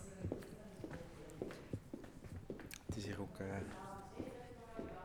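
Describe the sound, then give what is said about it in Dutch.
Steady footsteps walk along a hard indoor floor at an even pace of about two steps per second, while people talk over them, during a guided walk through a building with rooms for measurements and research tests. “goed om aan uw dagelijkse stappen te komen.”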